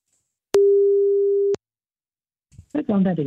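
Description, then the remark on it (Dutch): A single steady ringback tone sounds for about a second while a phone call is placed to the speaker's mother, then stops; after a brief silence a voice begins speaking over the phone line. “Dus we gaan even mijn moeder proberen te bellen.”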